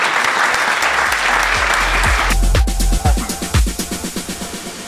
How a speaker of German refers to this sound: Bitte einen riesen Applaus!